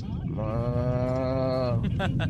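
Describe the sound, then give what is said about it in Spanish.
A caller from Toluca, telling a joke about two cows eating grass, imitates a cow's moo with one long, steady, low drawn-out call lasting over a second, fairly loud, followed by brief breathy vocal noises. “Estaban dos vacas comiendo pasto. Entonces una vaca empieza a hacer.”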